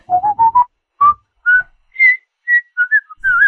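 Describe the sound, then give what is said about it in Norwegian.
A person whistles a short, bright tune alone: four quick rising notes, then a handful of longer held tones climbing higher, with brief pauses between them. “Men, nei, men da plystrer jeg litt, for så går vi til utenriks.”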